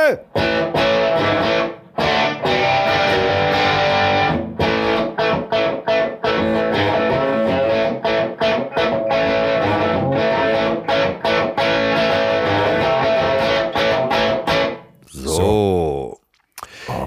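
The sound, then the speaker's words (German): A loud, dense musical jingle introducing the segment "E-Mail und die Detektive", with heavily processed, distorted voices and rhythmic stops, ending in a swooping effect sound; no plain speech. “Deswegen heißt es jetzt an dieser Stelle, äh, soll ich nochmal spielen?”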